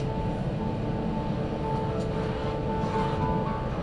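A steady, droning hum of jet engines fills the cabin of an ANA airliner on flight ANA3864/SFJ64 from Fukuoka Airport to Chubu Centrair International Airport, constant and moderately loud with a faint tonal whine riding on top, no voices present.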